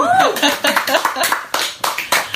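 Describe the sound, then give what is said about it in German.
Hands clap in a quick burst of sharp, uneven slaps, several claps in a row, with a brief high whooping voice at the start. “Hut ab, ganz ehrlich, das hat echt einen Applaus.”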